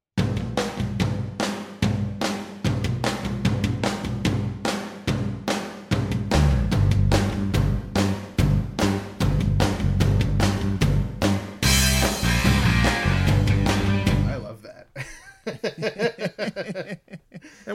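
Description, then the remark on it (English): A raw, un-EQ'd live recording of a rock band that was never mixed: loud, steady drum hits and a thick bass groove drive the song, which cuts off near the end as someone starts talking. “Now that's that's a completely un EQ'd. That's like a really basic. It was never even mixed.”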